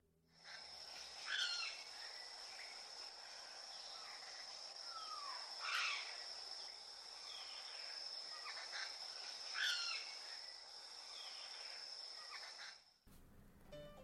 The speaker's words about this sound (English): The bird for today is Tullberg's woodpecker, which we call fine-banded woodpecker now in Uganda since they were split.